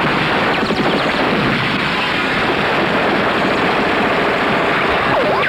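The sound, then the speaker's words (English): Rapid bursts of gunfire crackle during an ambush as people go over the side into loud, churning water and splashing, a dense, continuous roar of noise throughout with no voices. “Incoming! It's an ambush! Everybody over the side!”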